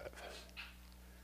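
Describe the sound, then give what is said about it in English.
A single sneeze during a sermon, a short breathy intake followed by a brief, hissy burst, faint over a steady low electrical hum. “Bless you.”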